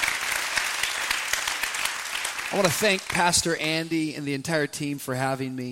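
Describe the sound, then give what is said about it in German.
A crowd claps in dense, steady applause in praise of God, the Lord, for a few seconds, then a man's voice begins speaking loudly over the fading clapping. “Gebt ihm mal einen richtigen Applaus dafür, unserem Herrn.”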